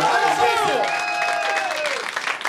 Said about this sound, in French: On l'applaudit! Vraiment!